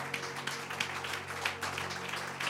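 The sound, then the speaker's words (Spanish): An audience applauds steadily as praise to the Lord, many hands clapping in a dense, even patter that holds at a moderate level throughout, with a sustained low hum beneath it. “De un aplauso, alabanza al Señor.”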